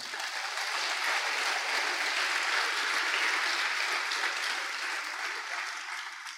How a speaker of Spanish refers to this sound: Denle ese aplauso al Señor.